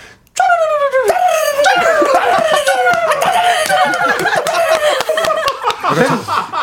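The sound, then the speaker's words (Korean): A human voice imitates a crow's caw with one long, loud, raspy cry that slides gradually downward in pitch, sounding gritty with rough breaks throughout. “아니, 까마귀 같아요.”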